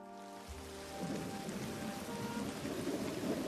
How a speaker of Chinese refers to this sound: 外面的雨已经哗啦啦的下了起来，夹杂着呼呼的风声，一道道的闪电和轰隆隆的雷声。